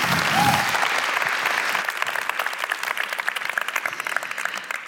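An audience claps for the preacher after a sermon, a dense wash of many hands that starts full and loud, then thins slightly into a looser patter of individual claps toward the end, with no one speaking.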